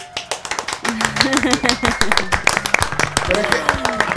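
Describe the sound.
Steady, brisk clapping from a small group rattles on throughout, with overlapping voices talking and laughing over it.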